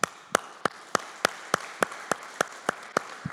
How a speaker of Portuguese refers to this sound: Quem, quem, acha que a mesa está bonita aí? Vamos aplaudir, vamos.